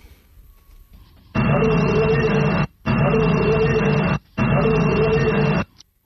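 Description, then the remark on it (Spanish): A noisy old EVP recording (psychophony) obtained in Spain plays back as three loud bursts of dense hiss and static, separated by brief silences, with a faint, garbled voice-like murmur buried beneath the noise. “la psicofonía que Constantin Raudive eh, obtuvo en España suena así”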